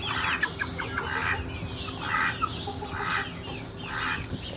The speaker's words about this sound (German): Das sind sehr junge Hennen. Sehr, sehr jung.